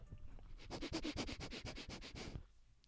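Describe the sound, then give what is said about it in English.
A person imitates a snow leopard sniffing around a burger with a rapid series of about a dozen short, breathy sniffs, lasting nearly two seconds before stopping. “a bit of sniffing.”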